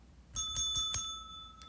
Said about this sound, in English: And here is a little warning we are going to be ringing a bell